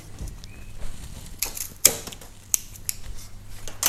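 Non-kitchen scissors, used for opening packaging, are handled, giving a few sharp, irregular clicks and snips over a quiet background hum, with no one speaking.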